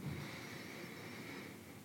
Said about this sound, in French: Donc nous restons dans la, dans la position assise, les mains sur les cuisses. Nous prenons une profonde inspiration.